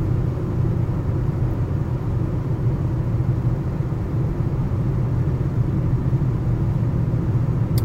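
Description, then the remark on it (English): Steady low rumble of a car's interior while driving to Club Comedy in Seattle, Washington, a constant dense road and engine drone filling the cabin at even loudness with no voices. “Uh, this is the drive to. I'm driving to uh, my shows tonight at uh, Club Comedy in Seattle, Washington.”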